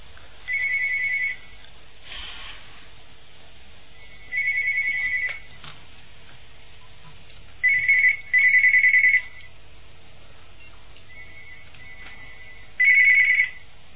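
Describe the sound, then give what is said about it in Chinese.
A call to Master Lu's (卢台长) phone line, which is not answered, rings with a bright electronic tone in short repeated bursts separated by pauses, some coming as quick double rings, and nobody picks up. No one speaks. “请大家不要打那个电话，因为台长那个电话不接的。”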